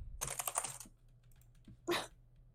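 A quick flurry of computer keyboard clicks rattles off for about half a second, then after a short pause a single louder click burst, like a mouse or key press, as someone plays a video game on a computer.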